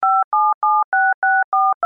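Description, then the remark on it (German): A rapid sequence of seven or eight electronic touch-tone beeps on a telephone, each a short two-pitch tone with brief gaps between, dialed at an even pace to call a psychiatric clinic's director. Clear, with no voices. “Postels Waffe war von jeher das Telefon.”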